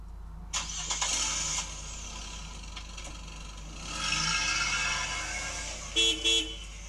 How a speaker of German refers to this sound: Ist das das Auto, das Motorrad, der Bus? Nochmal. Es ist das Auto, genau, das Auto, Auto, der PKW oder Auto.